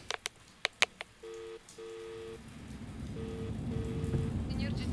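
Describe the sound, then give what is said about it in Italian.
A few sharp clicks and paired telephone tones give way to a steady, swelling hiss of heavy rain pouring down at the Frejus fountain in Piazza Statuto, growing denser and louder toward the end. “Sto qui dove mi ha detto Fontana del Frejus, Piazza Statuto e Diluvia.”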